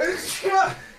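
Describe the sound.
A single sharp sneeze, triggered by briefly looking into the sun, bursts out with a voiced, breathy edge, short and fairly loud.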